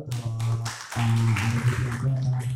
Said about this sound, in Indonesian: Ayo beri tepuk tangan dulu